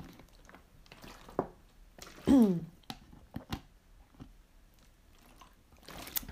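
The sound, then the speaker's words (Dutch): Quiet liquid sounds of a speaker drinking water: a few soft sips and gulps with small wet clicks, then a brief louder swallow, with no one talking. “What the fuck, waar is mijn water? Oké, wacht water.”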